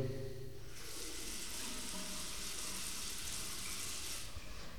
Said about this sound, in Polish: Teraz mogę puścić wodę.